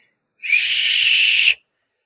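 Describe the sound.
A person imitates a small electric motor's whine with their voice: one steady, high-pitched buzzing hum lasting about a second, fairly loud, with no talking.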